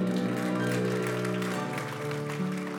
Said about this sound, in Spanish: ¿Cuántos dicen amén? Dele ese aplauso fuerte a Cristo porque Él es bueno.